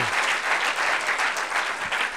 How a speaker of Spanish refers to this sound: No, a ver, denle un buen aplauso al Señor Jesucristo esta noche.